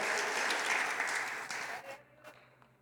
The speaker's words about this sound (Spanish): Alguien dele un aplauso a Jesús.